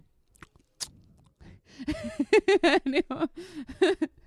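A few crisp ASMR chewing and crunching sounds right at the microphone, quickly followed by a burst of rhythmic, giggling laughter that takes over the rest of the moment.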